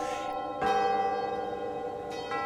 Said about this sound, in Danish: Og så blev der fest i København, og kirkeklokkerne bimlede, og kongen blev glad.